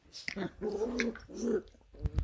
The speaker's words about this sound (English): We're in the front room of Annabel Crabb's house, and there's two puppies wrestling each other, two cavoodle puppies